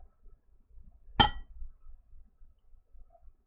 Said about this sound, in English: Let's uh, raise a glass here to, and, and I'll do one toast and then I'll do a Cogsley toast.